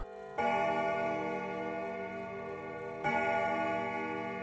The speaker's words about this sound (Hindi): ढूंढते ढूंढते आधी रात हो गई घड़ी ने बारह बजने का इशारा दिया